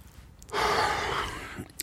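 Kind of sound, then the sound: human body sound, heavy breathing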